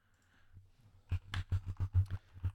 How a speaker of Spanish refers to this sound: Ahora tengo que pulsar el teclado con suavidad.